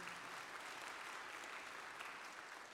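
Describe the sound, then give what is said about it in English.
Steady applause from a church audience honoring a couple's 35th wedding anniversary, a dense wash of many hands clapping at an even level throughout, with no voices standing out above it. “Give them a round of applause, won't you?”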